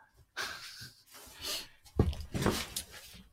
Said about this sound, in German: Oh, oh, oh, im Hintergrund schnauft er.